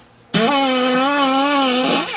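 A strained fart sound effect kicks in abruptly and holds for about two seconds, a loud, steady, buzzing tone with a slight wavering pitch before it cuts off.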